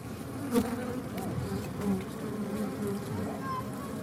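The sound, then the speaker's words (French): A dense, steady hum of many honeybees buzzing around beehives kept by beekeepers in the heart of the Calanques National Park, a continuous droning swarm with individual bees swelling louder as they pass, no voices. “parce qu'on leur fabrique des ruches et donc pour essayer de faire quelque chose sur le quartier qui puisse avoir un sens par rapport à la population et essayer d'être porteur de messages par rapport aux abeilles.”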